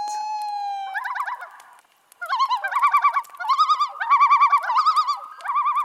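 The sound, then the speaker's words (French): Common loon calls over a lake, coming from far away: a long, pure sustained wail, then a run of wavering, yodel-like tremolo phrases repeating steadily over about five seconds, clear and unaccompanied, with no voices. “Et surtout, on y entend parfois ici mon bruit favori au monde, le chant des huards.”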